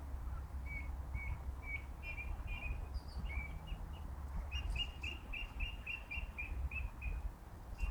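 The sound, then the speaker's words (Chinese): A Eurasian blackbird sings runs of short, clear whistled notes, repeated in quick succession, fairly faint above a steady low background rumble with no talking. It sings high in a tall poplar tree quite far from the recorder. “乌鸫歌唱”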